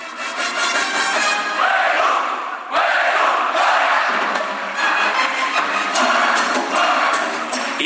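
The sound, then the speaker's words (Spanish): A large crowd chants the battle cry of Mexico's Instituto Politécnico Nacional in unison, loud, the massed voices rising and falling in repeated phrases with no talk over them. “Vamos a escuchar al Politécnico.”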